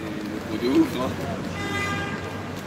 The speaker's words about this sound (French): Paris se réveille, Hein c'est un peu chiant. Hein. Ça commence à klaxonner, machin.